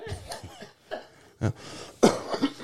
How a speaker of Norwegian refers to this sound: Unnskyld. Ja, jeg, jeg hosta, og så kolsen som bryter ut der.